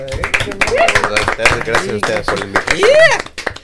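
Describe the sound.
Dense, steady applause fills the whole stretch, many hands clapping at once, while voices call out and whoop over it, with a few rising vocal cheers.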